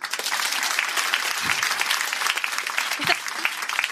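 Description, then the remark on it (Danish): An audience claps steadily for several seconds after the women present are asked to clap if they remember the day they got their first period, a dense wash of many hands at a fairly loud, even level with no voices rising above it. “Og hvem af kvinderne herinde kan huske den dag, de fik menstruation? Prøv at klap.”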